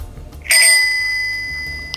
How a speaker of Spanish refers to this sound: Un timbre de bici y acto seguido un ciclista que iba caminando tranquilamente, iba pedaleando